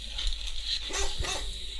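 A dog gives a couple of short barks and yips over a steady background hum.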